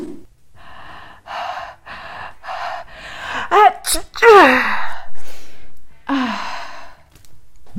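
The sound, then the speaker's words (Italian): Someone acts out a sneeze to illustrate the Italian verb "starnutire": a run of breathy, rising inhales builds up, then a couple of sharp, loud voiced bursts, followed by a trailing sigh. “Starnutire. Questo è un altro verbo che mi piace molto, soprattutto nel suono, e che tutti i miei studenti tendono a dimenticare perché generalmente si usa solo quando c'è questa determinata azione, ma credetemi è molto importante conoscerlo.”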